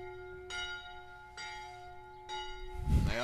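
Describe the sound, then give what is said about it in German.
A church bell tolls steadily at six o'clock, three strikes about a second apart, each ringing out with a long shimmering hum; a low rumbling noise swells in near the end. “Hä, so lang tut doch nicht um sechs die Glocke läuten Junge.”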